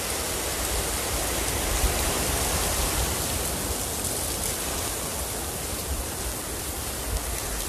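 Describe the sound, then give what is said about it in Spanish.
Heavy rain from Tropical Storm Hernán pours down in a dense, steady roar on La Boquita beach in Manzanillo, blending with the rumble of intense rough surf. The wash of noise stays constant and loud throughout, with no voices. “esta por esta playa de La Boquita, aquí en el municipio de, Manzanillo, para que ustedes puedan observar precisamente este intenso oleaje que en estos momentos se está registrando y la gran cantidad de lluvia que, en estos momentos se, se presenta.”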